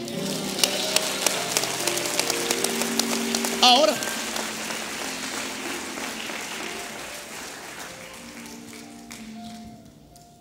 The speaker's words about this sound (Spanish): ¿Alguien puede darle un aplauso a Jesús?